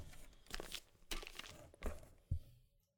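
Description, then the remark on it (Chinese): A cardboard box containing a gift being opened: four or five loud, uneven bursts of crinkling and tearing, with scratchy rustling between them, then quiet at the end. No one speaks. “打开纸箱的同时，旁边的猫虎视眈眈的看着他什么时候可以过来咬纸箱。”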